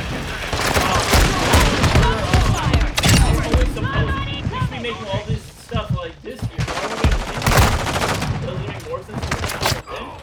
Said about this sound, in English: I couldn't hear you over the gun violence.